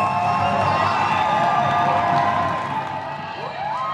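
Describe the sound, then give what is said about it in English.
A large crowd at the Southeast Asia Games cheers loudly and continuously as Vanessa Sarno wins gold for the Philippines with a 130 clean and jerk weightlifting record, a dense roar of shouting voices with rising whoops, sustained throughout with a slight dip before surging again. “You just heard the sound of Filipinos snagging gold in the dying seconds of their events at the recently concluded Southeast Asia Games.”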